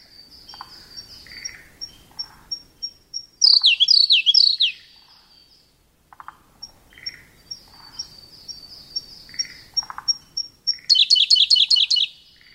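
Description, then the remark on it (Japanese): A Siberian blue robin (koruri) sings at Hirafushi Pond in Fukushima Prefecture, Japan: two phrases, each opening with soft, evenly spaced ticking notes that build into a loud, rapid rattling trill. Other bird calls sound faintly in the background. “平伏沼（福島県）のコルリをお届けします。”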